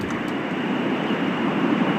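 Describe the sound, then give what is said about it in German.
A loud, steady roar of street traffic picked up over a caller's line, a continuous low rumble with a hiss on top that barely changes over two seconds, with no voices. “Ich höre sehr viel Straße. Kannst du das irgendwie optimieren? Es ist mega laut bei dir.”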